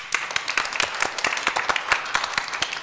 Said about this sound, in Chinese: 我们就把我们最热烈的掌声，哦，我们献给我们的主耶稣基督。